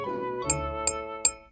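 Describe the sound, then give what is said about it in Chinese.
An iron chopstick taps the rim of a glass holding a little water three times at a steady pace, each strike a bright, high clink with a clear ringing tone that lingers, growing slightly louder by the third tap. “你现在用这根铁筷子来敲打这个玻璃杯的边缘。”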